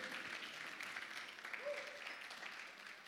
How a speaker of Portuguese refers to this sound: Se você crê, aplauda o Senhor Jesus.